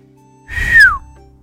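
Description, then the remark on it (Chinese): A single short whistle blown at the foot of Duixiu Hill, gliding downward in pitch, sharp and fairly loud, lasting about half a second over a low background hum. “我还没猜出来，那家伙突然咻的一声吹起了口哨。”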